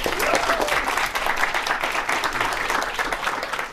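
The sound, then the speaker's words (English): Steady, sustained applause from an audience at an event, welcoming a speaker, fills the whole stretch, a dense wash of many hands clapping, with no pauses. “Johan Magnusson, a warm applause.”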